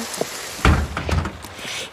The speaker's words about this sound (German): Du bist ja ganz nass. Nein, ich, ich bin nur nass. Es regnet, weißt du.